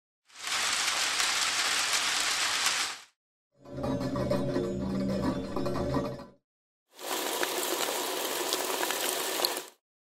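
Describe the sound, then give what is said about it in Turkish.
A sound installation in which a mechanism blows air into and out of paper bags: the bags rustle and crackle in three dense, sustained bursts separated by short silences; the middle burst carries a steady mechanical hum beneath the rustling, and no one speaks. “Kağıt poşetlerin içinde hava üfleyip veren mekanizmayla sürekli onların hışırtısını biriktiriyor ve bir uğultu haline getiriyor.”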